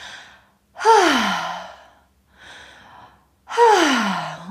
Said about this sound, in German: Das heißt, ähm, du öffnest den Kamin deines Herzens, was in dem Fall dein, äh, dein Mund ist, und du lässt den Atem mit einem Ton so durch deinen Mund nach draußen bewegen.